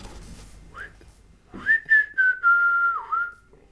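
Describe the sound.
A woman whistles after standing up from a stone in a forest: a quick rising chirp, then a short run of clear notes easing into a long, steady tone that dips near the end, with faint low background noise beforehand.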